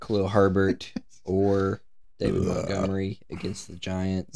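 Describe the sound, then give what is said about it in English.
A rough, low belch breaks in midway, fairly loud, lasting under a second between stretches of a man talking and a short laugh. “That was a burp.”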